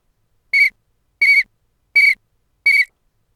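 Four short, shrill blasts on a whistle, blown by a person who was meant to blow it five times, evenly spaced about a second apart, loud with silence between them and no voices.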